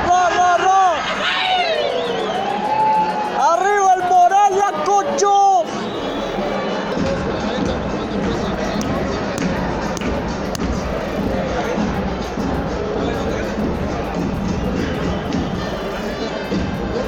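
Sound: football stadium crowd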